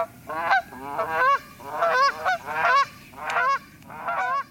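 A flock of geese flying in V-formation honks repeatedly overhead, harsh overlapping calls coming in quick irregular bursts, with a faint rushing background and no voices.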